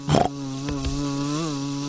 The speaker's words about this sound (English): Ooh, a wasp! I hate wasps. Shoo! What a fuss, Mummy Pig. It's only a little wasp. Go away, wasp!